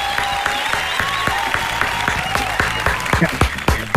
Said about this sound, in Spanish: Aplausos para el fanático número uno de Pikachu en Chile.